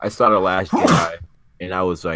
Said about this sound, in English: actually, oh, bless you. I think you sneeze. Well, bless you, dude.